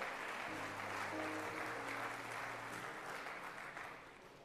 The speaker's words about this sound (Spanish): Vamos, dele fuerte palmas a Dios por eso.